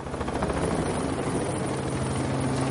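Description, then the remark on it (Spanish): A carabinieri helicopter flies overhead during a staged mock assault, its steady rotor thump and deep engine drone loud and continuous throughout, with no voices present. “Algunos periodistas se prestaron a la puesta en escena de los carabinieri con helicóptero, tropas de élite y asalto ficticio incluidos.”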